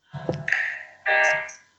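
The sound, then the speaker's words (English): A cell phone left switched on rings out in two short electronic bursts, bright and buzzy with a steady tone, the second burst louder than the first. No one speaks over it. “that's that's my cell phone that I did not turn off.”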